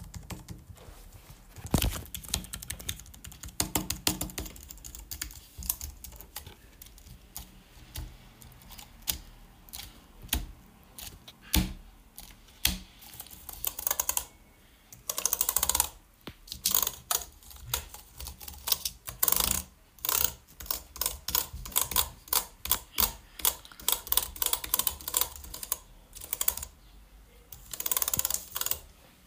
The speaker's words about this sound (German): Übrigens fragt euch nicht, wieso ich die ganze Zeit hier irgendwo rumdrücke wenn ich müde bin, habe ich irgendeine so Macke. Ich möchte irgendwie auf Tasten drücken, weil mich dieses Geräusch befriedigt.